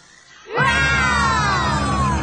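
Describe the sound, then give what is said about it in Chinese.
Several voices imitate a Maiasaura dinosaur call so the dinosaur will hear them: a loud, sustained cry rising sharply then holding a long harmonic wail that slowly falls in pitch, the voices blending together over a low rumble. “Come on，让我们帮美洲虎宝宝学恐龙叫，一起呼叫慈母龙吧。”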